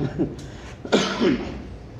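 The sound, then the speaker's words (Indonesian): A couple of harsh coughs, a short one followed by a louder, rougher burst, with some throaty vocal noise trailing after. “minum dulu bang batuk”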